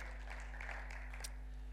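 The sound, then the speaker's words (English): A church crowd applauds to thank the team for their work, a steady crackle of many hands clapping for a couple of seconds over a low electrical hum. “I think they're worth another clap, actually.”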